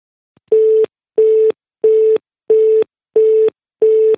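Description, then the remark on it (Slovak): A telephone busy signal heard while placing a phone call: six identical steady beeps, each about a second long with equal gaps, holding one mid pitch at an even, fairly loud level. No voices. “Takže obsadzovací dom, vyskúšame ešte raz.”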